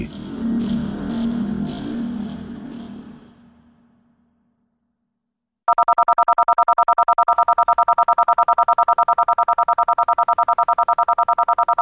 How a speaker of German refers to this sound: Also das ist ein Ausschnitt jetzt dieses Arecibo-Signals gewesen